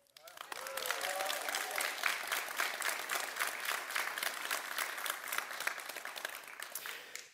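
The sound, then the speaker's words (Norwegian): An audience in a hall at an evening local election debate bursts into sustained applause, dense clapping mixed with cheers and whoops, steady and loud for several seconds before tapering off at the end. “Vi har publikum med oss i salen i kveld. Er det noe lyd i dere?”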